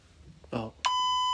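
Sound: answering machine message beep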